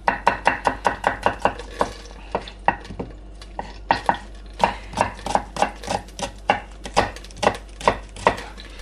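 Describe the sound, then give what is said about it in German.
A knife dices a medium-sized onion into small cubes on a cutting board, with quick, sharp chops in rapid bursts and brief pauses between runs, fairly loud and with no talking. “So ich habe jetzt hier so eine mittelgroße Zwiebel. Die tun wir jetzt mal eben hacken. Schön kleine Würfel.”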